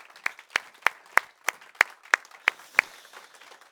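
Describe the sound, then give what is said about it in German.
Steady, rhythmic clapping to welcome the viewers and listeners one morning, about nine sharp claps at an even beat, clear, with only a faint background hum between them and no talking. “Lass uns Sie herzlich willkommen heißen heute Morgen.”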